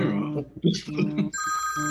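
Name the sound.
telephone ringing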